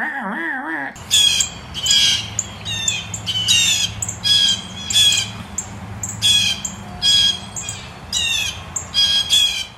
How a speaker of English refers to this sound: So when you're out birding and you hear the sound of eight blue jays just going.